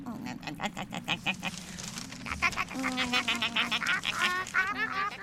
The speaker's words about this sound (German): Die anderen Gänse meinen auch, dass wir hier bleiben sollten. Sicher ist sicher.